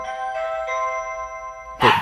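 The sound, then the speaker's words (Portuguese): A doorbell chimes with several ringing, slowly fading tones. Near the end a single loud dog bark cuts in over the lingering chime. No one speaks. “Porra, a campainha e o cachorro. Ao mesmo tempo.”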